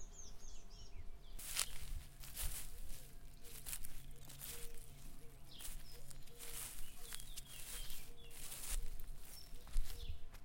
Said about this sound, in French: Ah, tu suivais un truc pour enregistrer Je, je- j'enregistre mes pas. Ah, t'as enregistré tes pas.